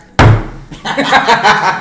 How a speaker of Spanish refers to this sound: Tocando la puerta, sí. Yo me tocaba la puerta sí, Pa, pa, pa, primer piso, güey.